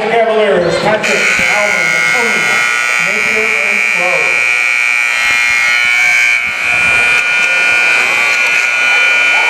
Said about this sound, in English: Well, that's a bit annoying the buzzer, if you couldn't hear at home, the buzzer just played for about 20 seconds straight. I think they could probably hear that one.